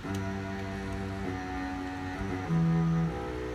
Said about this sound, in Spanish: mira, para que escuchen, hay, otra sonando un bajo, un contrabajo, suena así.